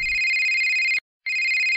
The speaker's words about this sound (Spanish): Fui interrumpido por el perforante timbre del celular de Kimber.